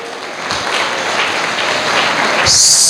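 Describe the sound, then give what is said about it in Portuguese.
A church audience applauding steadily during a sermon, a dense, even wash of many hands clapping at once, growing slightly louder toward the end with a brighter burst of higher-pitched noise. “se essas palmas não vierem acompanhadas de glória a Deus, aleluia, elas estão sendo para o pregador, e pregador nenhum merece palma.”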